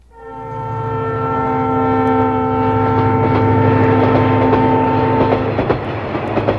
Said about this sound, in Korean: 이야, 기적소리 울리며 달리는 기차 소리입니다. 요즘 기차 소리가 아, 아니라 옛날 기차 소리라는데요. 예. 기차 소리가 오늘 보물 소리입니다.